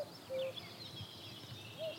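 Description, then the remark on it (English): A male common cuckoo calls, its soft low notes carrying over faint background birdsong in an open outdoor setting. “And there's a male cuckoo calling again.”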